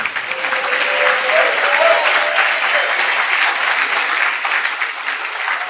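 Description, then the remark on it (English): An audience bursts into sustained, loud applause, dense clapping filling the room steadily for several seconds with a few faint cheers mixed in, no clear speech over it, giving praise to the Lord after a man's hearing is restored. “Give the Lord some praise.”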